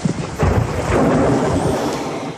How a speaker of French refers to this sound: Et elle sort dans la pluie, dans l'orage, il va lui courir après.